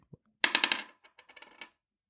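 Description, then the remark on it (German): A die clatters across a hard tabletop in a quick burst of sharp, rapid clicks, then bounces a few more times with smaller taps before settling on a six. Fairly loud, with no voices. “möchtest du mal kurz würfeln und mir mal sagen, welche Augenzahl oben liegt.”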